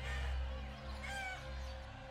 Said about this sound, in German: Ich konnte sogar einen Hahn weit im Osten krähen hören.